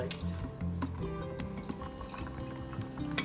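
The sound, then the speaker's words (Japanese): Soda water being poured into a glass of Suntory Royal whisky to make a highball, a steady gurgling stream with scattered little drips and splashes running for a few seconds. “でお酒の方も引き続きサントリーロイヤル、うん、えー、こちらを、えー、炭酸で割っていこうかと思います、はい、このいい酒を”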